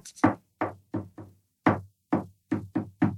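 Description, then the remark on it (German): Knuckles knock on a wooden table in a rhythmic pattern, about nine sharp raps with short pauses and a quick triple near the end, each hit with a low thud. No voices. “du klatscht auf die Schenkel einen Rhythmus oder du nimmst ein ganz primitives Ding von mir aus diesen Tisch hier und”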